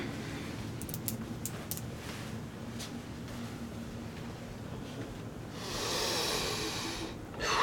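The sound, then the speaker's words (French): Audible breathing of a patient during a medical examination, against a faint low hum, building to one long, loud, deep breath near the end. No one speaks. “Votre respiration.”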